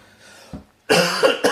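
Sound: coughing fit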